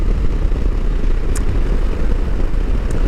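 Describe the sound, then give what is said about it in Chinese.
A train passes by with a loud, steady low rumble and roar throughout, broken by two brief high-pitched squeals. No one speaks. “哦，哎呦，火车哎”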